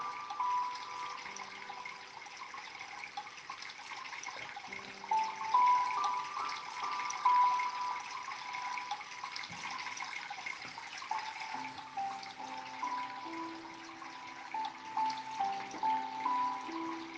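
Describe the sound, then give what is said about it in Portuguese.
Stream water runs and splashes steadily over stones, a continuous bubbling rush at moderate volume with no voices, while faint sustained tones hum softly underneath. “ouça a água caindo por entre as pedras.”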